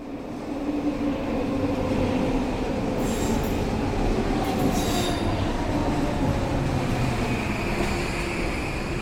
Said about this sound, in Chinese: 你刚刚听到这个声音，就是温哥华非常非常著名的 SkyTrain，它是环绕着大温地区很多地方。你如果是自己来自助旅行，一定会使用到的其中一个主要的交通运输工具。